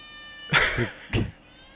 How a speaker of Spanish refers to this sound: Esa gata está en celo.